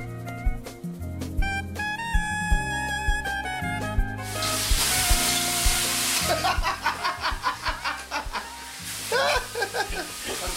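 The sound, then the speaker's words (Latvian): Water hits hot sauna stones in a sauna in Finland with a loud, broad hiss that flares for a couple of seconds, then breaks into crackling, fizzing pulses. Steady tonal, music-like sounds come before it. “Patreiz mēs atrodamies Somijā un raidījuma stācijā šoreiz no saunas.”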